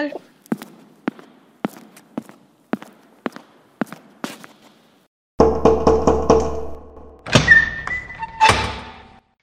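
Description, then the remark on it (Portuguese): About ten steady, evenly spaced knocks on a door ring out clearly, then give way to a louder droning, creaking sound and a few brief tonal squeaks. “Isso eu tô avisando pra minha porta.”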